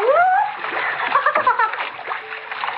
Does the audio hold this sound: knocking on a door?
no